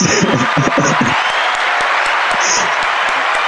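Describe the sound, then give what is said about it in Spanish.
An audience claps steadily for a few seconds, a dense wash of handclaps with some shrill whistles and a murmur of voices and cheers early on. “Un aplauso también.”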